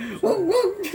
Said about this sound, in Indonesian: Abis itu yang yang ku dengar tuh ada suara anjing oh iya